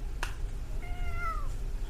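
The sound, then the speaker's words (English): A single drawn-out cat meow, clear, with a wavering, slightly falling pitch, preceded by a short sharp tap and set over a low background rumble. “the cat screams throughout the casino as you perfectly as he perfectly heats these weapons and you perfectly pound the runes from the lightning javelin into your sword.”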